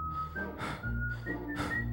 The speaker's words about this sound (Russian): а сам тип начал насвистывать мелодию.